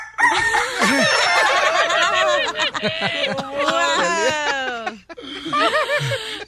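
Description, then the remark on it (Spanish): Chickens cluck busily while a rooster crows in loud, rising calls, the squawking barnyard racket running almost continuously for several seconds before a brief break and a final burst. “Cuando tú te enamoraste de la gallina allá en el rancho.”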